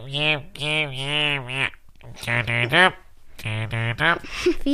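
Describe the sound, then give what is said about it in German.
A clear voice imitates how it sounds when it has a cold, putting on a stuffy-nosed, congested way of speaking and uttering several drawn-out, nasal-sounding syllables in short bursts separated by brief pauses. “Wie klingst du, wenn du verschnupft bist?”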